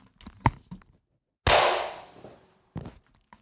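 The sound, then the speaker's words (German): A single loud, sharp hand clap, made as a sync marker after a countdown, cracks out and rings off over about a second, with a few faint soft knocks and shuffles before and after it. “lass uns noch mal einen Klatscher machen.”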